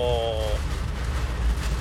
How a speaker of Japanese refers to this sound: うわすげえすごい雨になった聞こえますかねこれこれもうほぼ竜巻です